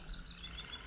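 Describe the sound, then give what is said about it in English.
Night birds chirp softly on a warm night in a steady, quiet background ambience, with short high tweets repeating now and then and no voices present. “You hear the night birds chirping.”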